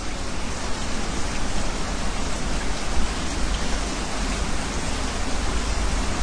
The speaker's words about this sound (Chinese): 听出来了吗？这是下雨的声音。